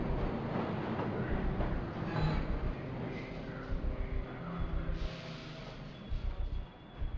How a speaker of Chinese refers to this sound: 地铁又停了一站